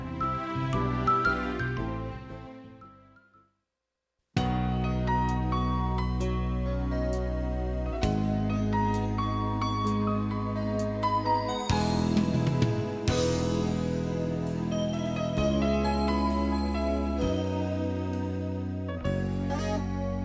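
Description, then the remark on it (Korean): A 1991 Korean pop ballad plays loudly: a gentle opening fades into a brief silence, then the full arrangement enters with steady bass, bright chiming chords and sustained melodic tones. “91년에 1집, 2집이 폭발적이었었어요. 그 중에서 한 곡 들을게요.”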